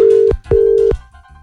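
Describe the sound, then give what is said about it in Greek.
A telephone line tone on an outgoing wake-up call placed to a listener by a radio station: two short, steady electronic beeps at one pitch, clear and fairly loud, with a brief gap between them and no voices. “Έχουμε να πάρουμε τηλέφωνο τη Σοφία.”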